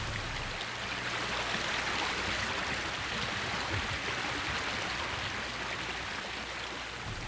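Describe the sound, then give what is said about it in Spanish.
A steady rush of a river flowing through a valley, broad and continuous with a gentle churning texture, heard evenly throughout with no voices. “El río que cruza el valle es sagrado, señor.”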